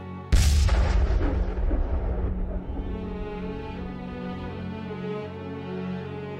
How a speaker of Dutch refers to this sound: Tot op het moment dat de stad werd opgeschrikt door een kanonschot. Om precies 22:40 uur 40 vuurde de panzerkruiser Aurora een losse vlodder af. En dat was het afgesproken teken voor de belegering van het Winterpaleis.